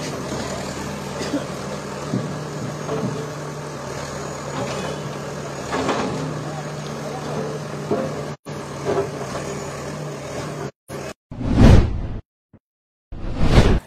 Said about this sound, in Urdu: ابھی آپ دیکھ رہے ہیں جو اسٹرکچر گرایا جا رہا ہے یہ علی محمد ساگر انسیلیٹر ان کی علیہ ان کے نام پہ ہے